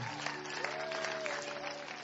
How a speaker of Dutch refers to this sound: Zullen we Jezus daarvoor een applaus geven? Wauw.